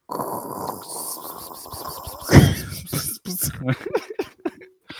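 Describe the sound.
A person imitates white noise with their mouth, a sustained breathy hiss that swells into a loud burst and then breaks into short choppy puffs, fairly loud.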